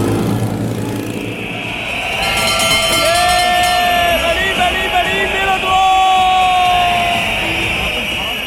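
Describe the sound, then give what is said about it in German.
Bells clang steadily over a loud, cheering crowd at a cycling race, with shrill whistle-like tones rising and gliding above the roar throughout. “Pfeifen, Glocken und Motoren, manch einer wird es erkannt haben”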